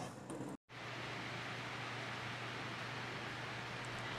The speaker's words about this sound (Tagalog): Pagpasensya nyo na lang po mga kapodcast kung naririnig nyo po yung buhos ng ulan.